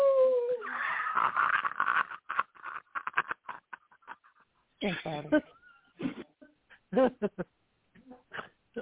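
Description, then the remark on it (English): A person howls like a dog on request in short, wavering bursts, first a sliding cry at the start, then another strained howl midway, with voices and muffled chatter around it. “please do that again. One, do it again. Howl.”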